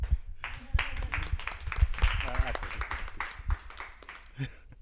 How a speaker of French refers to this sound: Donc, euh, je voudrais euh, qu'on fasse un, tonnerre d'applaudissements pour la dernière invitée,